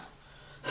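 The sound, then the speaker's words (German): A single short, sharp sneeze bursts out near the end after a moment of near silence, a quick breathy blast with no talking around it. “Gesundheit.”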